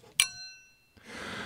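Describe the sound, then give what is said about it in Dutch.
Two glasses of Stuivenberger Brut clink together once in a toast, a bright ring that lingers and fades over most of a second, followed by a soft hissing fizz. “Eh, we drinken een Stuivenberger Brut op de 50ste aflevering van het Punt van Van Impen.”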